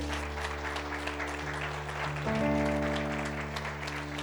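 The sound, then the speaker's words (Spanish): An audience claps steadily with dense, sustained applause, while a low sustained musical tone hums underneath and shifts pitch partway through. “La cruz, si vas a aplaudir, aplaude fuerte.”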